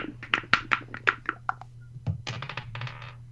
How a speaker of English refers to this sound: I got the twenty sider. Odds is uh, Jarro versus Spider Ham. Evens is Deadpool Harley Quinn. It's a twenty sider in my dice cup.